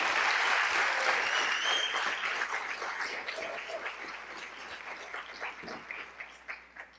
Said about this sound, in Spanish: Démosle un aplauso porque es una campeona.